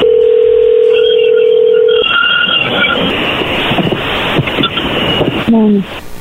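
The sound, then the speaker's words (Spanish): A steady telephone dial tone hums for two seconds, then short beeping tones sound as a number is dialed, followed by loud rushing line noise and a few quick falling tones at the end. “no haga ruido, ahí se está marcando.”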